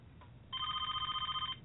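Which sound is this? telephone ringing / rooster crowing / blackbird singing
telephone ringing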